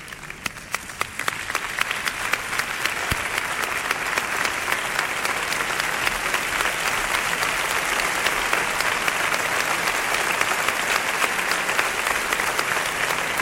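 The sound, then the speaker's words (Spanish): A large audience claps steadily for over ten seconds, a dense, sustained wash of applause that starts a little sparse and quickly fills in, with no talking over it. Applause for the Canal Sur Radio team. “yo quiero pedirles un aplauso.”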